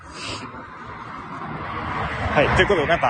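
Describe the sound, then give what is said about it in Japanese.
A steady low rumble of car traffic runs underneath a person talking, with a broad wash of road noise that swells slightly toward the end as if a car passes. “車の音うるさくてすいません。”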